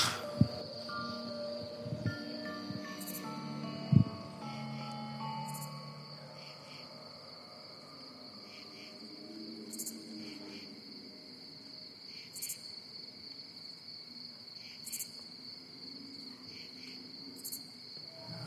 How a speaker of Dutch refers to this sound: Met een hele toffe soundscape zo, met die eh, krekels. Ja, en af en toe wat, wat klanken.